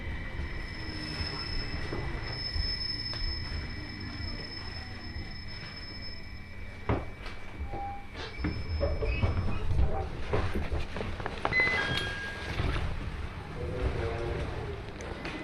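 A Joban Line train in Japan runs between Hamayoshida and Haranomachi with a steady low rumble and rattle, while high, thin metallic squeals from the wheels ring out in long sustained tones, swelling and fading over the run.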